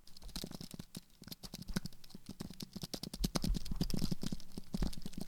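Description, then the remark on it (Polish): Steady, fast typing on the computer keyboard used every day, a dense run of sharp key clicks with no talking, growing a little louder and busier toward the end. “Najpierw klawiatura, która normalnie, z której korzystam codziennie.”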